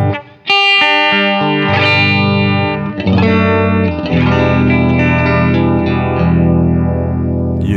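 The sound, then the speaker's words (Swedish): Loud, distorted electric guitar chords ring through a phaser pedal in its 45 setting, with everything at full volume and a steady whooshing sweep rising and falling about once a second. No one speaks. “Eh, yes, 45-läget först. Ut... Utan skript.”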